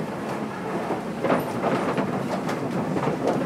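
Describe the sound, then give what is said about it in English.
A vehicle rattles very slowly across a rusty old metal bridge in Harambe: a steady rumbling roar broken by repeated clanks and clatters at an uneven rhythm, with no voices. “We think we're across another rusty old bridge.”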